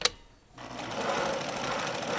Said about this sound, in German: Hier ist meine singende Säge. Moment, ich muss sie nur noch einstecken. Ah, elektrisch. Natürlich elektrisch. Oder dachten Sie mit Pedalen? Äh, naja. Achtung, äh, es geht los.